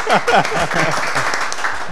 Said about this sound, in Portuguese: a igreja aplaudiu é de pé.